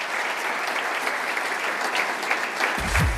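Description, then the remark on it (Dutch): Steady, dense applause from a sizeable audience fills the whole stretch, many hands clapping at once in a continuous rush, with a low thump entering near the end. “Een Groot applaus.”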